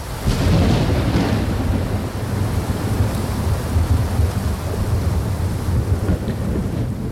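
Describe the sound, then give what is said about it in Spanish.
Steady, heavy rain pours down in a dense, continuous hiss, with a deep rumbling undertone like thunder or wind. It stays loud and unbroken throughout, with no voices. “No, no, para de llover, ¿eh?”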